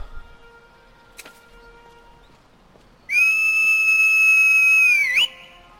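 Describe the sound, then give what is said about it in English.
A loud, steady high-pitched whistle blown to call a horse, holding one note for about two seconds with a slight dip at the end, following a quiet stretch with a faint click. “And time to whistle up”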